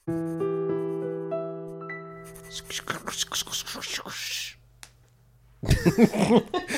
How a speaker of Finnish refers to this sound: Mikä se on? Se oli se kynän suhina ääni. Ai niin se.